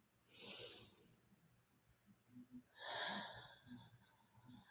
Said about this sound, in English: I try to take a deep breath. Speaking of, take one with me